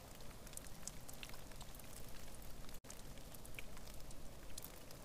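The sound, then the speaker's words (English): Soft, steady, mellow rain patters on tundra moss, recorded from a lava cave used as rain cover; a dense hush of tiny drops with occasional brighter individual taps, continuous and gentle with no voices. “So, a lot of my solution was finding these lava caves where I could have a rain cover and then also get the sound of this mellow rain on the tundra moss.”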